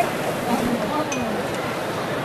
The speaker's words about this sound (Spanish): Suena el martillo. Martillo con un crespón negro.